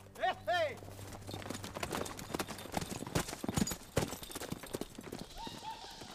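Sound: horse hooves galloping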